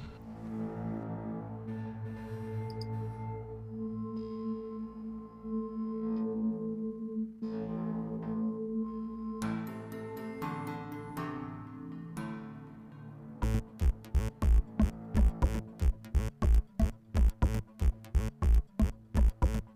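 A rock song intro opens with droning, effects-laden distorted guitar tones that swell and shift, then breaks into a loud, tight rhythmic chugging of heavy chords. No vocals.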